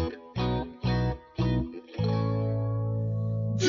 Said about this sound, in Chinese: 刚刚大家听到的是电影《波西米亚狂想曲》中的原音。